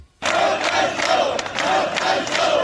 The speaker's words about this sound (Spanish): con ese grito de apoyo Jaime y también con peticiones de dimisión al ministro del Interior Fernando Grande Marlaska eran recibidos los cuatro miembros del comité de empresa, todos del sindicato ATA